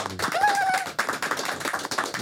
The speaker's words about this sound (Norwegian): Kan få en applaus her inne. Det er mange mennesker her.